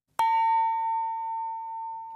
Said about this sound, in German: Läuten im Jazzakkord.